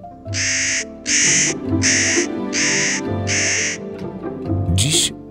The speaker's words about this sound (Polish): ruszamy w Tatry, aby przyjrzeć się orzechówce, mądremu ptakowi z rodziny krukowatych.